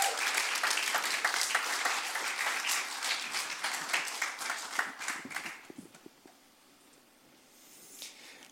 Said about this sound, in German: Hey, danke euch beiden für euer Teilen, für euer Herz. Gebt ihnen einen Applaus